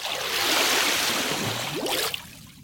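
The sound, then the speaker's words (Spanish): A submarine dives beneath a calm sea: a loud, steady rush of churning water fills the scene, with a low rising tone near the end before the roar fades off. “Equipo Alfa, estamos listos para sumergirnos en 3, 2, 1.”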